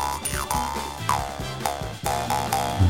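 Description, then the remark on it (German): A jaw harp twangs loudly in a steady rhythm, a new pluck about every half second, its buzzing drone sweeping up and down in pitch. No one speaks. “Und es war natürlich vielen sofort klar, dass es hier um eine Maultrommel handelt.”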